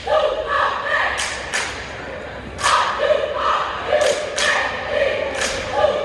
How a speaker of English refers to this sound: Now this is the retaliation to it. This is the retaliation cheer.